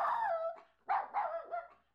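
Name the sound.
dog whimpering and crying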